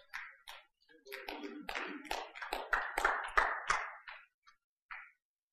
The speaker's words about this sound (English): I didn't expect to get too many claps on that one.